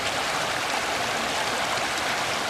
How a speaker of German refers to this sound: Diese Pfade zwischen Bach und Fels sind nun schöne Wanderwege. Und je nach Jahreszeit tobt oder plätschert das Wasser durch die Schlucht.